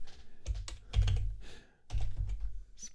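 Quick bursts of typing on a computer keyboard, clicky keystrokes coming in irregular clusters with short pauses between them, fairly clear, with no one speaking.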